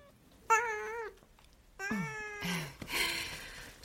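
A cat meows three times in close succession, loud: a short first call, then two longer drawn-out meows with rising and falling pitch, no talking.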